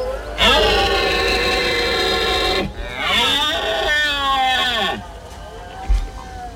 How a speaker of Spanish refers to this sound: La poderosa voz del venado que concita a los machos y las hembras para la berrea